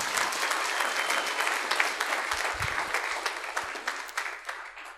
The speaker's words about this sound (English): why didn't you clap that much can you clap a bit more that was a powerful point